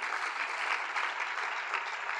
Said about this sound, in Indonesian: Berikan tepuk tangan sekali lagi bagi Tuhan kita.